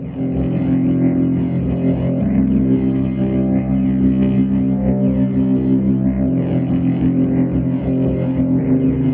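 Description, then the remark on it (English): Sustained organ chords swirl through a speaker that spins around inside the cabinet. Their tone wavers in a steady, pulsing woo-woo motion. Loud and continuous, with no voices. “I'm not quite sure which organ I used, but you know, like the the, the Wurlitzers or the the Rhodes or something, they'd often have a speaker that actually span around the cabinet so that you'd have this woo, woo, woo, woo uh, sounds.”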